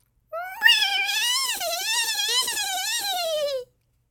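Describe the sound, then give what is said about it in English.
A grandmother, diving underwater at the edge of the deep blue sea, imitates a dolphin call with one continuous, high-pitched, warbling squeal. It rises and dips for about three seconds, fairly loud, with no other sounds. “They were trying to learn how to speak dolphin, but it was quite hard to decipher.”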